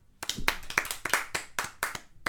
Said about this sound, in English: Everyone clap.